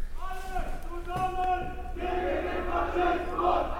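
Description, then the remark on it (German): A crowd of protesters chants together outside a door in Mainz, Germany, their massed voices rising and falling in sustained shouted phrases, 'alle zusammen gegen den Faschismus', over steady background noise. “Ah, alle zusammen gegen den Faschismus.”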